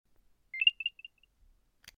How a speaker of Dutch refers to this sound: Het was het geluidje van de AirTag als je hem voor het eerst activeert of wanneer je de batterij vervangt.